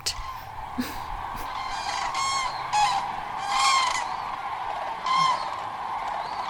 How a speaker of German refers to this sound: Was ich natürlich jahreszeitlich extrem interessant finde, und da bin ich immer am Fenster, ist, wenn eben die, der Vogelflug beginnt hin und zurück. Also die Wildgänse, die hier rüberziehen und die Kraniche.